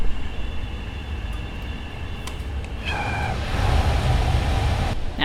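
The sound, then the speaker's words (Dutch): Steady airflow hiss from a sterile lab flow hood being switched on. It swells partway through as the fan spins up, adding a deeper rumble and a faint mechanical whine. No one speaks. “en dan hoor je de luchtstroom, als het goed is, al opstarten.”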